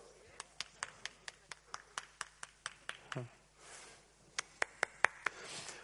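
An audience claps in a steady, rhythmic beat, about a dozen sharp claps in a row. After a short pause, a few more claps follow, loud and close.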